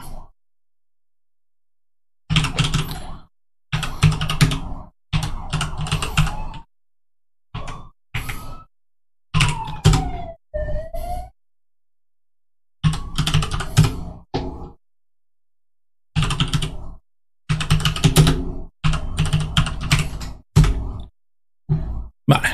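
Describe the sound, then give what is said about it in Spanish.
Someone types a username and password on a computer keyboard in several quick bursts of loud clicking keystrokes, broken up by short pauses of silence, with no one speaking. “Voy a poner mi usuario y contraseña mientras...”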